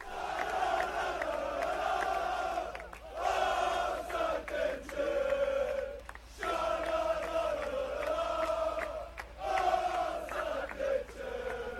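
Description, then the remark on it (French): A large crowd of football supporters chants in unison at night as their team returns from Marseille, their voices swelling in repeated melodic phrases with brief pauses between, loud and continuous like massed singing at a rally. “Dans la nuit, les trates étaient en feu à leur retour de Marseille. Écoutez plutôt.”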